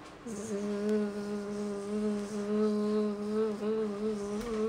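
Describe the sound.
A person imitates a mosquito with a continuous nasal buzzing hum, held steady for several seconds with slight wavering in pitch, fairly loud, with no speech.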